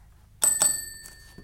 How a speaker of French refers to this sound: Un matin, dring dring, quelqu'un a sonné à la porte.